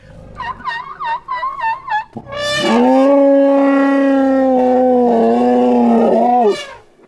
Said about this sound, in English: It's uh, elephant cacophony